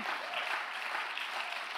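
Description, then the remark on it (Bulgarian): Steady, sustained applause from an audience clapping to give glory to God, a dense wash of many hands clapping at even loudness throughout, with no pauses or individual claps standing out. “Ръкопляскай на Бога, ако му даваш слава.”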